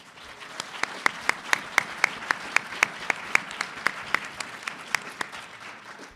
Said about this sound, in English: So I want to applaud the candidates that did show up tonight as well.